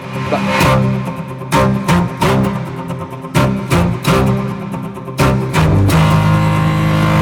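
Driving rock instrumental cover from a 2018 album, played on bowed cellos, with loud percussive stabs hitting in a punchy, syncopated rhythm over sustained low string tones, full, no voices.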